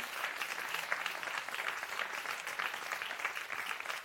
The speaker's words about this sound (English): If you're going to clap, you've got a hand clap this morning.